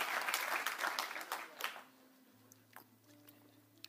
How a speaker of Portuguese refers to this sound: Essas palmas não era por causa da banda, era por minha causa.